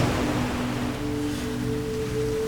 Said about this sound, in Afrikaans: Wat hoor jy? Jy hoor die see. Dis die branders wat soos perdjies galop. Jy hoor hoe die see saggies asemhaal en bou tot die brander hard land op 'n rots.